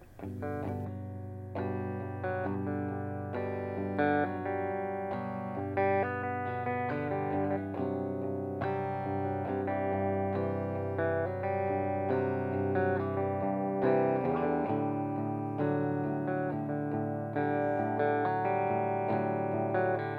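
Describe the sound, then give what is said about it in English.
A band plays a song live on the tiny stage at radio station 95.9 WATD, with steady, full instrumentation: layered guitars with a warm, slightly distorted tone over a sustained bass, the music continuous and evenly loud throughout, no voices. “Let's uh, do some more music and then we'll chat some more.”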